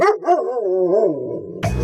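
A dog vocalizes up close, a long wavering, whiny bark that slides downward in pitch, then cuts off into a short, harsh burst. No one speaks.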